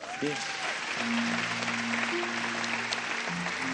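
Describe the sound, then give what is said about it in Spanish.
An audience applauds the Lord after singing the Gloria, dense steady clapping with a sustained organ or keyboard chord droning underneath and a brief sliding tone near the start. “Un aplauso al Señor.”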